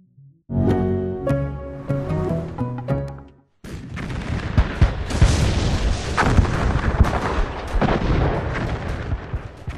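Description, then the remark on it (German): A short tonal musical phrase breaks off, then a recording of the very last minute of World War I on 11 November 1918: a dense, continuous barrage of artillery fire, overlapping booms and sharp blasts over a constant rumbling roar, loud and unrelenting, with no voices. “Was Sie hier hören, ist eine Aufzeichnung der allerletzten Minute des Ersten Weltkriegs am 11. November 1918.”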